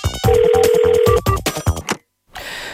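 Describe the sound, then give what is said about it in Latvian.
A telephone in a studio rings loudly as a listener calls in, a steady electronic tone with choppy bursts around it, then a brief silence before a faint hiss. “Mums klausītāji jau zvana.”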